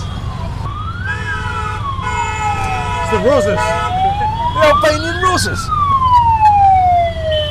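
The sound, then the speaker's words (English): A police siren wails up and down, its pitch sweeping slowly through traffic noise and engine rumble, while people chat and laugh over it. “I think that's the first time we've heard of yeah. police siren.”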